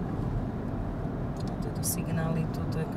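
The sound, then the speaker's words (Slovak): Steady low rumble of a car driving through Pichne in Slovakia, heading toward the Ukrainian border, constant throughout, with faint voices murmuring under the road noise. “Sadáme znovu do auta a prechádzame pichňami.”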